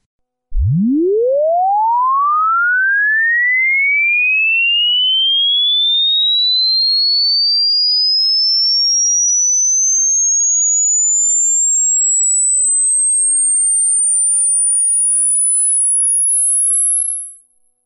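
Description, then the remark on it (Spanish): A single pure sine tone from a hearing age test sweeps steadily upward from a deep low hum to a piercing high whine over about sixteen seconds, holding constant loudness before cutting off abruptly. “Si lo quieren hacer en su casa, pues pongan algo así como audio test age, ¿no?”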